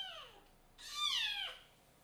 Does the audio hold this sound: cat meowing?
yes